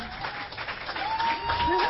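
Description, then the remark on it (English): A crowd claps steadily in dense, continuous applause welcoming a speaker up, with scattered voices and a faint whistle-like tone rising through the noise. “If you guys want to just give him a hand of applause because he deserves it.”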